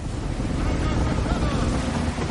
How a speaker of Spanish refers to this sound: De día un barco carguero surca el mar.